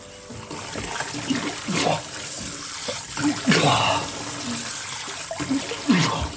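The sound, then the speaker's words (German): Steady running water pours from a tap or shower, a broad hissing wash with splashes and occasional louder gushes, with voice-like sounds faintly mixed in; a man is bathing under the water jet. “Unter dem Wasserstrahl ließ die Betäubung nach.”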